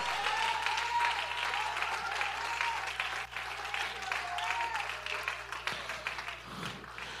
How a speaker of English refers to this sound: Can somebody give me a Lord, uh, give the Lord a hand clap of praise?